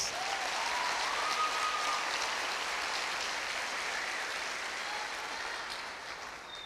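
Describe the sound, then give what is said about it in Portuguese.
A large audience in Jaguaruna applauds God steadily, a dense wash of clapping that holds strong for several seconds before gradually thinning toward the end, with no one speaking over it. “Você pode aplaudir esse Deus.”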